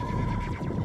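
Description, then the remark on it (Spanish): A horse neighs in one brief, loud whinny with a quavering pitch, heard on its own with no talking. “Los caballos.”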